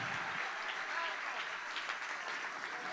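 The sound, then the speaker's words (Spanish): An audience applauds the Lord loudly, a dense, steady wash of many hands clapping together that holds at full strength without fading. “Dale un aplauso fuerte al Señor aquí.”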